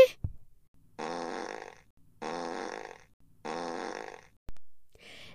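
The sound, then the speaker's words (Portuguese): Three loud, buzzy fart blasts, each lasting about a second and evenly spaced, with a couple of brief sharp thumps before and after; no one speaks. It is a fart so strong that it tears the roof off a house. “Ele fez um pum tão forte que arrancou o telhado da casa.”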